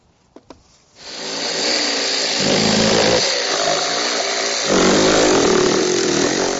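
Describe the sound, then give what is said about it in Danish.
Two quick clicks, then a power saw starts cutting through wooden pallet boards for a chair seat with a loud, steady, rasping buzz for about six seconds. Its pitch shifts slightly as the blade works. No one speaks. “Mit sæde, det har et helt bræt foran, og så skal jeg have skåret dem bag det fjerde bræt her, så passer det til den stol, vi skal lave.”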